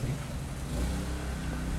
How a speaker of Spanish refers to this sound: Eh, si escuchan un tractor, disculpen, pero tengo un vecino que vende el tractor todos los días.